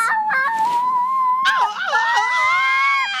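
human body sound, baby screaming

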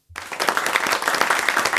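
crowd, small round of applause

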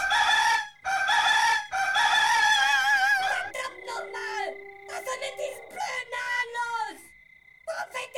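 bird, rooster crowing

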